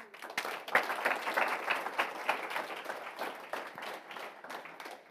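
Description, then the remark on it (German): An audience at a healing church service applauds steadily for several seconds to welcome first-time visitors, a dense wash of many hands clapping at once with no voices standing out, moderately loud and sustained throughout. “Die möchte ich wirklich ganz besonders, auch mit einem kräftigen Applaus, nochmal begrüßen heute.”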